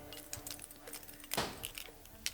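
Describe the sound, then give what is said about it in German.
Keys on a ring jingle and clink in short, irregular bursts, fairly quiet, with one brighter rattle near the middle as a woman standing in a doorway fiddles with the bunch in her hand. “Sie verharrte im Türrahmen und spielte mit ihrem Schlüsselbund.”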